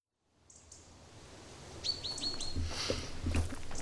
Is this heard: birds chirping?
yes